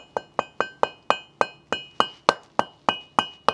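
A hammer strikes a metal chisel while chipping, in a steady series of about thirteen sharp, ringing clinks, each with a bright metallic tone and quick decay, with no talking.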